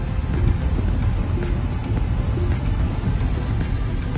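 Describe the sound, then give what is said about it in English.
Steady, low road rumble from inside a 2022 Tesla Model Y Performance electric car cruising smoothly along, a constant hum of tires and wind with no voices, holding an even loudness throughout. “We're gonna take off on the first ride on the new 2022 Tesla Model Y Performance.”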